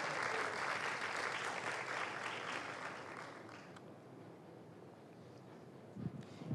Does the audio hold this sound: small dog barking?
no